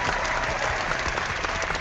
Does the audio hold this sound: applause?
yes